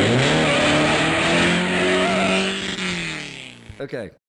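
A car engine roars loud, holding a steady, revving drone as it accelerates, then breaks off abruptly in a few quick sputtering bursts.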